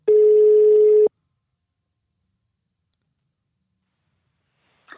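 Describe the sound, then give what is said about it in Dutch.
A single loud, steady telephone ring tone, a call to Henk Spaan's answering machine, sounds for about a second, then a long silence follows before a faint, brief sound starts near the end. “ik denk dat we zo weer gaan horen het antwoordapparaat van.”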